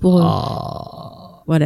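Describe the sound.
A voice imitates the ghostly croak from the horror film The Grudge: one loud, raspy guttural rattle that drones for over a second and gradually fades, followed by a short spoken word.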